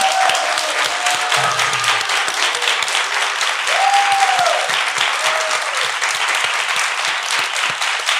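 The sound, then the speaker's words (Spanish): Sustained applause from an audience for a doctor fills the whole stretch, a dense, steady wash of many hands clapping, with a few faint tonal sounds and murmurs mixed in. “Le damos un aplauso al doctor”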